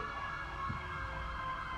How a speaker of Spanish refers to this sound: Más vale que quien vaya en esa puta ambulancia se esté muriendo de verdad.